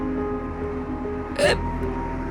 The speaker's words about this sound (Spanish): Ella lo miraba debajo de su cabello, fascinada, seria cuánto tiempo había transcurrido, un hipo fuerte la sacudió, desafinado.